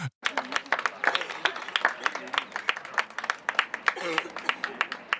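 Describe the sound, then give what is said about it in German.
An applause sound effect: dense, steady clapping from a crowd lasting about five seconds, fairly loud throughout, with some voices faintly mixed in underneath. “Da könntest du jetzt wieder so einen Applaus ein, äh, äh, einblenden.”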